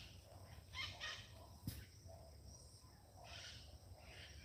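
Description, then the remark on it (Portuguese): Faint parakeets chirp and chatter in scattered high-pitched bursts, with a sharp click midway and a low steady hum underneath; no one speaks. “Quanto periquito.”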